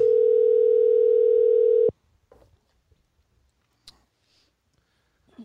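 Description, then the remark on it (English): A steady, loud telephone dial tone drones for about two seconds as a call is being placed, then cuts off abruptly, followed by faint clicks and quiet line noise. “as I try to call him here.”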